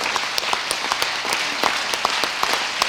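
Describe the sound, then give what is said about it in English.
A standing audience claps their hands together as an offering to God, a dense, steady patter of many overlapping claps with sharper individual slaps popping out, sustained and fairly loud throughout with no voices. “Come on, if you want, if you want to live giving right now, can you stand and clap your hands and just present that to God?”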